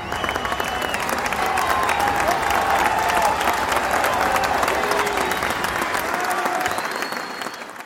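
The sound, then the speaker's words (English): A large crowd applauds and cheers loudly, dense clapping with scattered shouts and whistles, sustained throughout before easing slightly at the end. The crowd is cheering George Washington as he finishes the oath as President of the United States, while church bells ring. “Church bells ring once again, and the crowd goes wild.”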